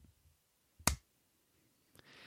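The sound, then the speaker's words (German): One sharp, loud hand clap cuts through near-silence, a single crisp smack with a short tail, followed by quiet and a soft hiss at the very end. No one speaks. “Mach einfach mal, ohne dass du redest, einen Klatscher.”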